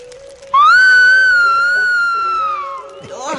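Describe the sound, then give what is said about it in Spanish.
A single loud, shrill whistle, held for about two seconds with a slight rise then fall in pitch, made by a person imitating the call of a tapir by whistling with the lips held between the fingers, over a faint steady hum. “Los indígenas, cuando salen a cazar, imitan su voz silbando fuerte, agarrándose los labios con los dedos de la mano.”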